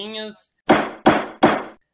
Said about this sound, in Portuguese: Então, ó, três batidinhas